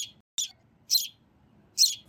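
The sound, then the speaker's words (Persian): A baby sparrow found among leaves chirps in short, high bursts, four sharp peeps spaced roughly half a second apart, fairly loud over a faint low background rumble. “این صدای گنجیشکی که میاد”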